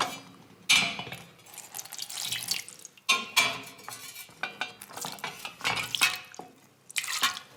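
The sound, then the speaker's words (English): Hot water pours and splashes in bursts over metal kitchen utensils to scald them, with clinks and stirring sounds, no voices. “The first thing we must do is scald all of our equipment. So all of the utensils we are going to use.”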